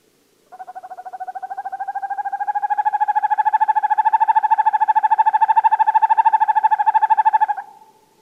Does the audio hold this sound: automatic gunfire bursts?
no